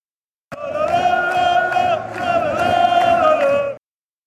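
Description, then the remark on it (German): Football fans in a standing block roar and chant together as their team celebrates, a loud sustained wall of crowd voices lasting about three seconds with a brief dip in the middle. “Er steht da und versucht, die feiernde Mannschaft und den Stehblock zu filmen.”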